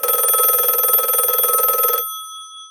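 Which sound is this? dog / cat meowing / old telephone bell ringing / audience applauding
old telephone bell ringing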